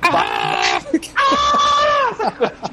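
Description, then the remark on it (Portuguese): A cartoon cat's scream, the yell of Tom from Tom and Jerry used in a music video: two long, shrill, wavering yowls in close succession, loud, followed by a few short vocal squawks. “E aí, na hora que, é, no meio do clipe, na hora que as pessoas se emputecem, eles botam o sound kills do Tom e Jerry, tem aquele grito do, do Tom quando.”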